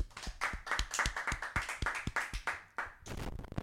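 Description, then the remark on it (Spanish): A round of applause: many sharp, loud hand claps in a quick, fairly steady rhythm, with a few overlapping claps and no talking. “Un aplauso.”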